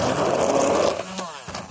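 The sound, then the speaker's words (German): An old, simple hand blender whirs steadily for about a second, a buzzing motor whine churning through a whitish mush as it is mixed, then cuts off and leaves brief rattling and quieter noise. “Ich benutze einfach so einen alten, einfachen Pürierstab.”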